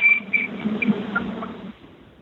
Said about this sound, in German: Jetzt fährt genau hier ein ganz lauter Zug.